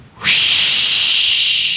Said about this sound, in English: That jet of fresh, pure moisture stands for the new, different, moisturized Raleigh 903.